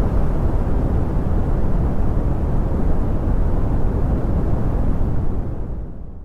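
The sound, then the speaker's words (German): Deep, steady brown noise: a continuous low rumbling rush concentrated in the bass, with muted highs, holding constant before easing down slightly at the very end. No voices. “Vor allem junge Userinnen und User berichten über TikTok und Co von positiven Erfahrungen mit dem Rauschen und so klingt das Brown Noise.”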